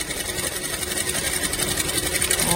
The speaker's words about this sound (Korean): 오늘 들어볼 현장의 소리는요. 네, 오늘은요 여성복 핸드메이드 공방에서 옷 만드는 소리를 녹음해서 오. 어. 보내주셨는데요. 어. 바로 같이 한번 들어보시죠. 어. 재봉틀 소리다.